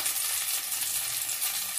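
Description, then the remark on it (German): A steady, hissing sizzle as broth from a bottle is poured in one go into a hot pan to deglaze it, a dense bright crackle that holds evenly for the whole stretch with no voices over it. “Und dann setzen wir unsere Brühe drauf.”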